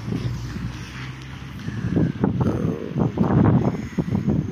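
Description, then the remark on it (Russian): Strong gusty wind with snow blows into the face of a person walking and buffets a microphone outdoors, a continuous low roar with bursts and crackling blasts growing louder over a few seconds, with a brief vocal murmur at the start. “Вот прямо иду, я в юго, это в лицо мне сейчас снег, ветер.”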